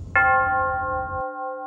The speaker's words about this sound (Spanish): En cuanto sonaron las campanadas de la medianoche